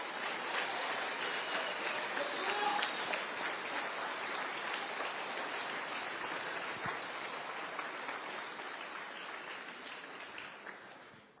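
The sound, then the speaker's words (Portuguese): An audience applauds Jesus steadily, a dense, continuous wash of many hands clapping at once, sustained and fairly loud for several seconds before tapering off at the end. “Aplaude Jesus, irmão.”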